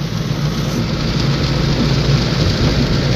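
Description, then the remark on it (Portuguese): Steady, heavy rain pours down in a dense, continuous hiss with a deep rumbling undertone, loud, with no voices or breaks throughout. “Ainda bem que não vai ser nada demais, né? Com essa chuva.”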